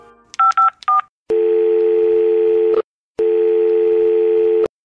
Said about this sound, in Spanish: Y entonces, sin pensarlo más, agarré el teléfono y llamé al único número que conozco.